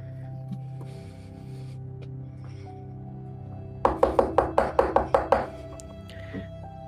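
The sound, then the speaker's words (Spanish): A quick series of about eight sharp, loud knocks on a door in a steady rhythm over a low background hum, followed by quiet. “Escuchas como alguien toca la puerta y abre de inmediato, sin pedir permiso ni nada.”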